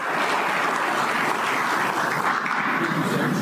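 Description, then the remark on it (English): An audience of Republican faithful claps steadily as Brad Chambers, a candidate for governor, is introduced, in a dense, continuous wash of applause that holds at an even, fairly loud level throughout, with no voices rising above it. “Round of applause.”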